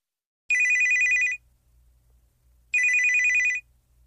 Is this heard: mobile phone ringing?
yes